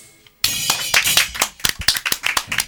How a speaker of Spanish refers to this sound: Aplauso, aplauso enorme para este gran equipo de Providencia jóvenes eh, los vamos a ir nombrando.